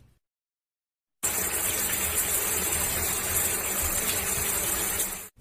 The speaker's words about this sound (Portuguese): Seu banheiro também era muito grande. Continha um box espaçoso, duas pias, um vaso sanitário e um espelho que preenchia a parede. Ela começou a se despir e ligou o chuveiro.